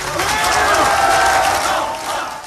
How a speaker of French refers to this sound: Alors l'avantage c'est que vous avez des supporters hein, avec vous, on peut les entendre.